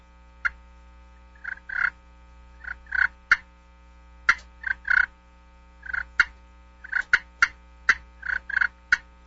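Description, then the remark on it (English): A slate turkey call plays a cluck and purr, a turkey content or feeding call: a series of short, sharp clucks mixed with soft rolling purrs, fairly loud, in an irregular rhythm with no talking. “Yep, cluck and purr. I'll do that on a slate call.”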